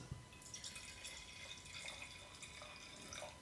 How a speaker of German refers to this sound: Entschuldigung glaub, fürs Geräusch, ich mache noch so ein wunderbares Red Bull Weingetränk für uns beide schnell.